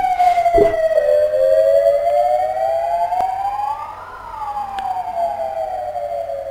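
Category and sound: vehicle, ambulance siren passing by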